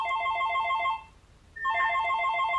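A telephone rings in two electronic bursts of trilling tones, separated by a brief pause, fairly loud with no voices present.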